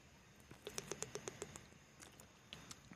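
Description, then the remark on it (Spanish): A water bottle being handled and drunk from, with a quick, even run of about eight plastic clicks and crackles, fairly quiet, then a few scattered softer taps, with no speech. “Porque mira, igual que yo, si me ves, puede ver la botella de agua. Y si no, mira, puedes escucharla.”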